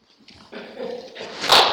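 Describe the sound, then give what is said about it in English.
A person mimics a dog, making a low rumbling growl that rises into a brief, high whimpering yelp, fairly loud, lasting under two seconds. “Same dog. Just like that.”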